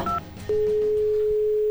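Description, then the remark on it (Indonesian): A phone call dialing: a brief higher tone, then one long, steady ringback tone holding for over a second with no answer, over faint background noise. “Kenapa nggak diangkat-angkat sih,”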